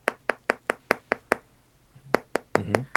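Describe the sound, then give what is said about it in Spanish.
A finger taps rapidly and evenly on window glass about seven times, sharp and fairly crisp, then a short pause and a few more taps, at 3 a.m. in the dark, with no talking. “Se ve que es una cámara que está haciendo como suma lo que parece ser una ventana y se escucha el sonido de un dedo en el vidrio.”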